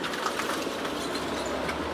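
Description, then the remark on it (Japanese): A small kei truck drives uphill fast and carries on without stopping, its engine and tire noise forming a steady, loud, broad roar that holds evenly for the whole moment, with no one talking. “すごい勢いで軽トラが登ってきましたね”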